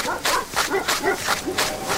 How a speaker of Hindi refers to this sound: दौड़ते दौड़ते पलटकर प्रिया ने टॉर्च की रोशनी में देखा तो उसे कोई कुत्ता नजर नहीं आया पर कुत्तों की आवाज जरूर आ रही थी